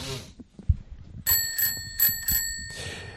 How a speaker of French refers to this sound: mais bah, écoute, tiens, allez, euh, jingle, c'est pour moi.